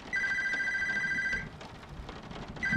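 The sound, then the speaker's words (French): A landline telephone rings in steady electronic trills, one long burst followed by a pause and the start of another, over a constant rumbling background like rain or a storm. “Personne ne m'appelle sur le fixe, c'est eux.”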